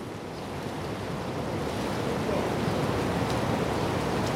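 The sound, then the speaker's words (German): A steady, loud rush of churning water fills the whole stretch, a dense continuous roar as pumps force water out of a harbor, with no pauses and no voices. “Und hier, so ist das hier, wenn wir jetzt mit Pumpen das Wasser rausdrücken.”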